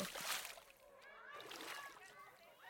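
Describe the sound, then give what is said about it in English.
A loud splash of someone jumping into a swimming pool right at the start, followed by water sloshing and the echoing chatter and shouts of children. “Angie arrived at the pool and jumped in the water.”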